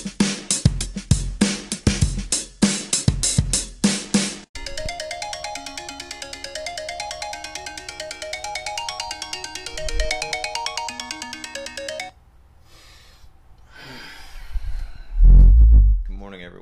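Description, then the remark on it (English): A phone alarm ringtone goes off loudly early in the morning, at about ten to six, a percussive beat giving way to a repeating electronic melody that cuts off abruptly, followed by quiet rustling and a muffled thump. “judging by the sound of that alarm.”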